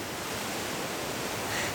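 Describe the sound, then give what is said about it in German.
The Isel, one of the last wild rivers in Europe, rushes steadily, heard from its bank: a dense, continuous roar of churning water, with no voices and no breaks in the flow. “Das ist die Isel, einer der letzten wilden Flüsse Europas so hört sich die Isel vom Ufer aus an, aber wir wollen heute unter anderem herausfinden, wie es sich anfühlt, im Fluss zu sein.”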